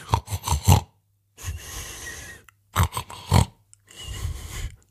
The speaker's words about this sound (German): Vielleicht ist es nur ein einfaches Schnarchen. Vielleicht erzählt sie aber auch gerade eine Geschichte.